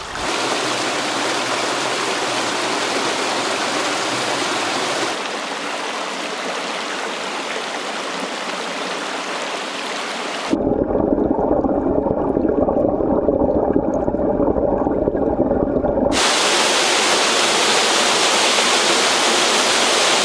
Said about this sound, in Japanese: 今朝は名水百選フーップ川の涼しげな音色